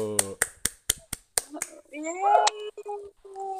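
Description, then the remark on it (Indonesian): About seven sharp hand claps in a quick, even rhythm, welcoming a guest, followed by a person talking and laughing once the clapping stops. “Tepuk tangan dulu.”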